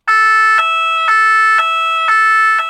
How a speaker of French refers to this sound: Des sirènes et des camions de pompiers, mais ça n'était qu'un exercice. Les pompiers ont organisé cette semaine des manœuvres à bernay Nidernay, Saint-Nabor et Zwiller des exercices en situation réelle pour bien s'entraîner.